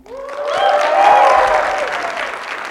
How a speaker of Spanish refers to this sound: Estamos en el campus de Puebla y tenemos aquí un público muy entusiasta. A ver si los escuchan.